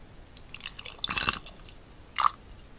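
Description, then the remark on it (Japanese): Liquid poured from a small bottle for drinking, in a few short, soft glugging bursts with brief gurgles, fairly quiet, then a last louder glug near the end. No one speaks. “このね、ボトル開けたばっかりのね、満タンな時はいいんだけどね、これ、日常的に飲む時のね、音はそんないい音は出ないんだよな。”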